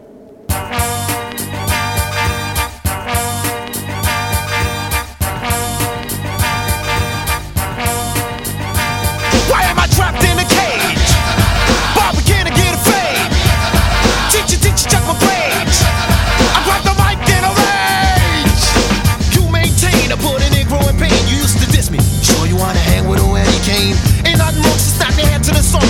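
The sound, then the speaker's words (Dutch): A 1990s hip-hop track, the opening track of a debut album and released as its second single, plays loud, its steady bass-heavy beat looping before the mix thickens about a third of the way in as rapped vocals ride over the groove. “En dat is tevens de albumopener van die eerste plaat.”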